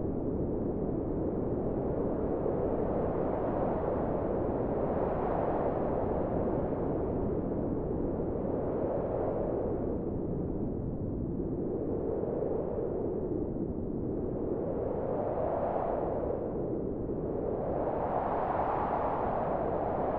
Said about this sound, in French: Et donc euh, ce souffle, c'est à la fois le bruit du vent et, le souffle de l'air, le son du silence.